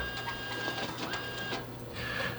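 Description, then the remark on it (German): An office copier scanning a few documents, apparently with a paper jam, whirs and hums steadily with a thin high whine and soft mechanical clicks and swishes; no one speaks. “Aus meiner Kabine habe ich einen perfekten Blick darauf, wie du ein paar Dokumente scannst.”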